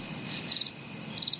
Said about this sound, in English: Well, it's the crickets again.